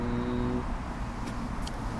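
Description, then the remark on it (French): Steady road traffic on a road running along the canal, the Digue du canal, a continuous low engine drone with a passing vehicle's hum fading in the first half and brief hissing swishes of tyres later on. “On est euh, vraiment à côté d'un axe de circulation qui longe le canal.”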